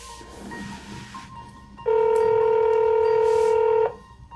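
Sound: telephone dialing and ringing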